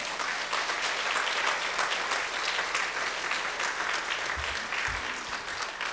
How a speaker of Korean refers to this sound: 말씀 전하러 나오실 때 큰 박수로 환영하겠습니다. 목사님 나오시겠습니다.